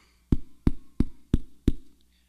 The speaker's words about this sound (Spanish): Cuando tocaron la puerta.